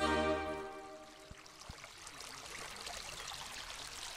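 babbling brook flowing

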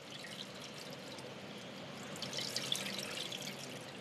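water pouring

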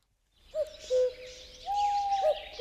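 owl hooting

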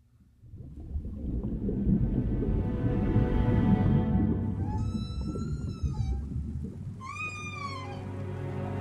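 whale song

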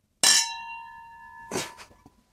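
glasses clinking together

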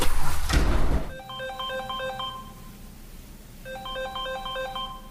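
telephone ringing

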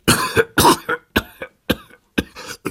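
repeated coughing

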